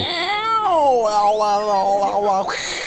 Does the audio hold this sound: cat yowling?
yes